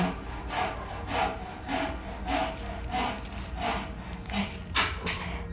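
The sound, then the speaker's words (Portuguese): Steady back-and-forth sawing from a neighbour's construction work, about nine rasping strokes in a quick even rhythm, over a low background hum with no voices. “O vizinho começou a fazer obra.”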